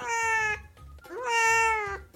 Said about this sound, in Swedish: Jag talar med eh, … här. Oh. Och du kan höra katten bara jamar.